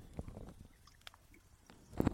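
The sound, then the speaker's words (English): A wood fire crackles quietly in a studio, with scattered soft clicks and a few sharper snaps, including a louder burst near the end; no one speaks. “Snap, crackle, I don't know pop. If you can hear that. Um, we didn't have enough pine in there for that popping.”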